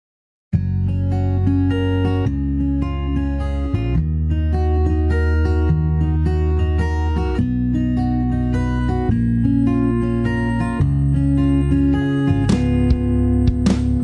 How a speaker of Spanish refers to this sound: Bueno, vamos a seguir escuchando buena música y ahora seguimos charlando y recibiendo más mensajitos de ustedes. Seguimos escuchando música música de lo alto.